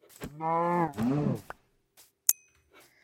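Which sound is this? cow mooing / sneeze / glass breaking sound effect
cow mooing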